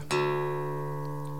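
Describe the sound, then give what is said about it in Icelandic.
The top string of a guitar, downtuned to D, is plucked once and left to ring out with a steady pitch and a slow fade. No one speaks. “það er kallað downtuning þá tek ég efsta strengin heyrst þetta náðu vel í ja. og ég tek hann núna neyri D”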